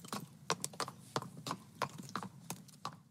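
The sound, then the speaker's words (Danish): Horse hooves clip-clop in a steady walking rhythm, a dozen or so crisp strikes over a low background rumble, with no voices. “Skarpt bevæbnet og til hest bevægede de sig over to måneder fra by til by på det indre af Sicilien.”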